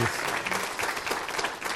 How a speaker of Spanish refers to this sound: Eh, no me queda nada más que agradecer a nuestros invitados, para quienes les pido un fuerte aplauso,